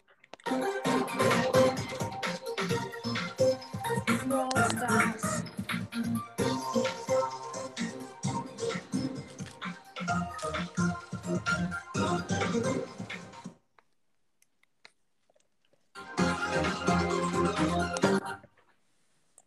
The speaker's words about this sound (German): weißt du, was es ist für ein Lied? Brawl Stars Melodie. Ja, ja genau, Lobbymusik.